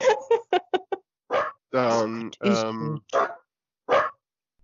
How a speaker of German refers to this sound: Huch, das war mein Hund.